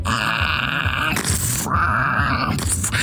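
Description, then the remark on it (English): A voice mimics a damaged spaceship straining as it starts to move, with smoke and sparks coming out of it: two long, loud grunting groans, harmonic and buzzing, broken by a brief rougher burst in between, continuous. “This like ship starts to the escadaddle starts to move a little bit. It, there's smoke and sparks coming out of this.”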